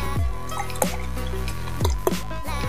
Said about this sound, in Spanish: Yo me voy a servir ahora, me voy a servir con espuma. La idea es que tenga dos dedos de espuma.